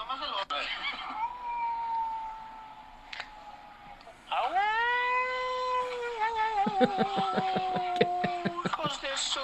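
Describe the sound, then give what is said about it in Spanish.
A person imitates an animal howl with two long, sustained wails: a softer one first, then a louder rising cry that holds and breaks into a wavering, pulsing tail. “Pero aquí les dejo mi aullido.”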